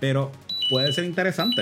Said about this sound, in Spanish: Y esa era la alarma recordándome